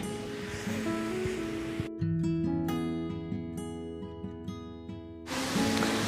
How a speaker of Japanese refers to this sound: ちょっとね今雨がまた強く降ってきたんで一旦止めようと思います